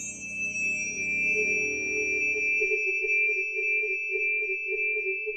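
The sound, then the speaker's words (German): A struck tuning fork rings with a pure, steady tone that holds evenly for several seconds, clear with no voices, a faint low rumble fading out partway through. “Schallwellen, die eine Stimmgabel erzeugt, wären zum Beispiel solche stehende Wellen.”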